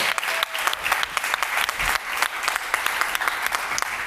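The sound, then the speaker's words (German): An audience applauds steadily while a guest comes onto the stage, a dense wash of many hands clapping with sharp individual claps popping out irregularly, sustained at an even level throughout without any voices standing out. “Ihr müsst jetzt so lange klatschen”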